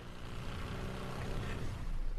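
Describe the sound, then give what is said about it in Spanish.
A motorboat sound effect: a steady, droning motor engine hums continuously, a low rumbling buzz with a slight rise in intensity toward the end. “¿Eso es lancha neta? ¿No puede poner efecto lancha?”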